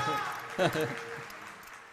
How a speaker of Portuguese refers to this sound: Uma salva de palmas